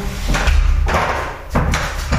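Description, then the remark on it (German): A few dull, hollow thuds from feet stepping into a shower tub in a bathroom, loud, spaced about half a second apart over a steady background rush, with no one talking. “Das klingt immer komisch, wenn ich reinsteige.”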